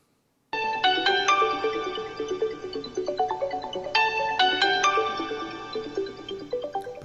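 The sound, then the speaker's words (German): A bright electronic telephone ringtone plays a stepping melody of clear tonal notes that rises by a fifth, the short phrase repeating twice, fairly loud with no voices. “diesem Telefon habe ich die Quinte gefunden.”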